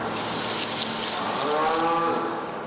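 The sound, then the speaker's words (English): Holstein dairy cows mooing while huddled in long pens, munching hay, at Blue Spruce Dairy Farm in Bridport, Vermont, home to 2,000 cows, at 5 o'clock on a cold morning; one drawn-out, wavering moo rises over a steady wash of background noise and other lowing from the herd. “They're huddled together in long pens, mooing, munching hay,”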